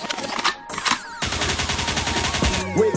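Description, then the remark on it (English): A DJ gunshot sound effect, signalling to skip forward, fires off as a rapid, loud volley of bursts over thumping music, briefly dropping out before the shots pick up again and run nearly to the end. “They could means rewind, a gunshot means forward.”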